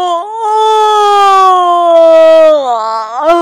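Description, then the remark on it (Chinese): A storyteller imitates the big, drawn-out yawn of the character Graf in a children's story: one long, loud vocal tone that slowly slides downward in pitch, then dips and lifts briefly at the end, with no other talking. “格拉夫打了一个大大的哈欠”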